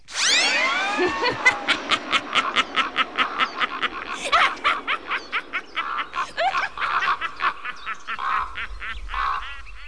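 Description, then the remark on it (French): A flock of nasty birds squawks and honks loudly and harshly around a witch flying off on her broomstick, calls overlapping in a rapid, chattering stream with whooshing sweeps at the start, fading slightly toward the end. “Belzépha s'envola sur son balai entourée de tous ces vilains oiseaux”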